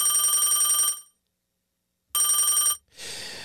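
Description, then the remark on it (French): A telephone rings loudly with a rapid trilling bell: one long ring, a second of silence, then a shorter ring that cuts off into a burst of handling noise; a caller is phoning back. “Ben oui, c'est lui qui rappelle.”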